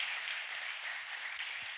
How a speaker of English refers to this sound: Let's give God a hand clap.